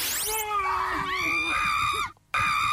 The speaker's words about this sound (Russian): Ну вот, собственно, там женский крик какой-то.